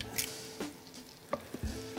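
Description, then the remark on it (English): Donuts frying in hot canola oil until golden give a steady, soft sizzle and crackle, broken by a few brief clinks and taps, with no one talking. “So what I'm looking for when I'm frying these up is this golden color here.”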